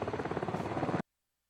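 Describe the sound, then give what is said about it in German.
A helicopter used for rescue during a flood: its rotor thuds in a rapid, steady chop, loud as if passing overhead, lasting about a second before cutting off abruptly into silence. “Und es steht inzwischen so hoch, dass Helikopter zur Rettung eingesetzt werden müssen.”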